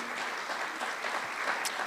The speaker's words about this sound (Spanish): Y ¿por qué no hacemos un paréntesis y le damos un aplauso a todos los que hacen posible esas reuniones que están allá tras cámaras, allá en las pantallas?